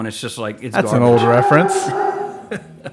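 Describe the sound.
A dog lets out a strange, drawn-out guttural groan with a demonic, moaning quality, loud, overlapping with people talking.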